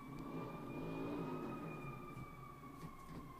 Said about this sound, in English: Who the hell is revving their engine out there?